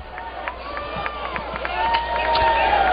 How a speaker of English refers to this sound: So Bohrofen's out on strikes, one away, and Jared Wegner gets a little cheer from the section of Razorback fans down the first base line.